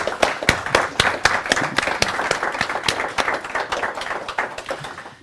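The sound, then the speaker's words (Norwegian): An audience applauds, a dense crackle of many hands clapping at a steady, fairly loud level for about five seconds, with no voices over it. “Gi henne en applaus!”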